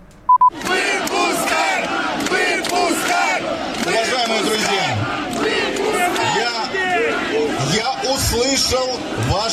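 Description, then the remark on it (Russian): A large protest crowd in Brest shouts and chants together, demanding the resignation of the city authorities and law-enforcement chiefs and the release of detained protesters; a dense roar of many voices rising and falling in loud, rhythmic bursts that fill the whole stretch after a short beep at the start. “И на этой встрече потребовали отставки властей города и руководителей правоохранительных органов и освобождения задержанных на акциях протеста.”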